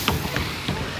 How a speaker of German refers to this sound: Also du hast uns ja Geräusche geschickt, wir hören es auch ein bisschen plätschern im Hintergrund.